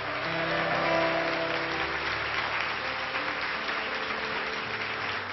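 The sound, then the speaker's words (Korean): An audience at an early-morning service at Onnuri Church in Incheon breaks into sustained applause and cheering to welcome the senior pastor, a steady dense wash of clapping that holds at an even level for several seconds, with no talking over it. “우리 목사님 나오셨는데 우리 큰 환호와 박수로 축복하고 격려했으면 좋겠습니다.”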